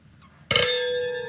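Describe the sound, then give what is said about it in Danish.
A single bright clink of glasses touching in a toast, sharp at first and then ringing on with a sustained, shimmering tone that slowly fades, fairly loud. “Skål. Skål.”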